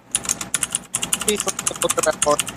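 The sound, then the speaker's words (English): Rapid computer keyboard typing, steady, a dense clatter of keystrokes with a brief pause near the middle before resuming; a faint voice murmurs underneath. “Uh oh, Ben's typing. I can't tell which direction typing it's going.”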